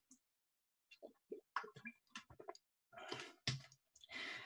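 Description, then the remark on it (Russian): Someone drinks water: a string of small wet clicks and sips, followed by a few louder gulping swallows and a breathy exhale at the end. “Разрешите мне попить воду.”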